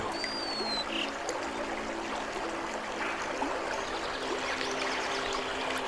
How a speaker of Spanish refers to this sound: A medida que más gotas de lluvia caen, la corriente se hace más grande y se convierte en un arroyo.